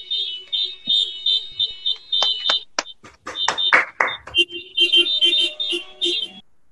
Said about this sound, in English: it's a lovely symphony of horns.